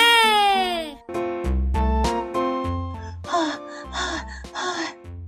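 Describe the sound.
A voice gasps with a long falling breath, then gives three heavy, evenly spaced panting huffs close up, like someone out of breath, over a steady tonal background.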